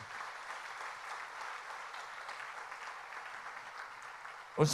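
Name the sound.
round of applause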